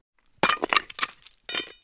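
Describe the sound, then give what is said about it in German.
Slate is broken by hand with an iron bar, a heavy hammer and a chisel, splitting it for building: a sharp crack followed by a rapid clatter of brittle, clinking fragments, then a second loud crack and rattle of pieces. No voices are heard. “Hier brechen wir die manuell noch mit einer Eisenstange und einem dicken Hammer.”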